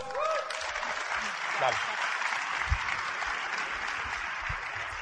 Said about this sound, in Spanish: Y yo los felicito porque hoy domingo están aquí. De verdad, es un aplauso.